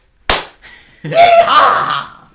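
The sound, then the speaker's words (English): A single loud, wet slap of a body belly-flopping into a mud pit at the annual mud belly flop event in East Dublin, Georgia, followed a moment later by a burst of crowd noise with shouts and cheering. “Okay, we were only able to attend one event, and that's the mud belly flop.”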